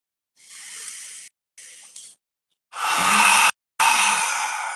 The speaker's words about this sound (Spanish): Tómate estos minutos para tomar esta respiración y centrarte.